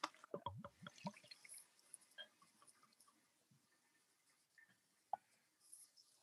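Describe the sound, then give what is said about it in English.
A malt-smelling drink is poured into a mug, with a quick burst of splashes and clinks at the start, then soft, scattered drips fading into near silence. No one speaks. “All right, let's pour it in.”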